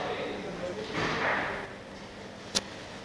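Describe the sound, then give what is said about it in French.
A cork is eased slowly and delicately out of a wine bottle with a corkscrew held straight, a soft drawn-out squeaky slide followed a moment later by one small, crisp pop. “Tu vois ce que je veux dire Et quand on enlève le bouchon, c'est délicatement.”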